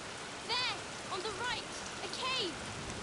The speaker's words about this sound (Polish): Jest jaskinia. Musimy się schować w jaskini przed deszczem.